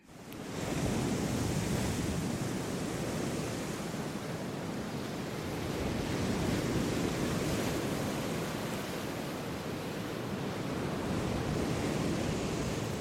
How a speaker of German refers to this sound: Das ist natürlich eine schöne Brandung auch.